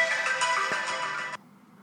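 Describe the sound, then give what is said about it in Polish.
A phone ringtone plays, a bright, dense burst of layered electronic tones that cuts off abruptly near the end, leaving only faint low residue. “No i proszę, ktoś dzwoni.”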